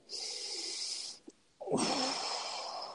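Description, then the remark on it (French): A deep breath: a long, airy inhale through the nose, a short pause, then a fuller, steady exhale that rushes out slightly louder and lower. No one speaks. “Alors on va dire une respiration.”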